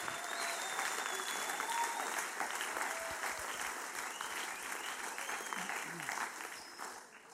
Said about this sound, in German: Ja, ich glaube, das hat einen Applaus verdient. Herzliche Gratulation euch allen zu der Lehrstelle.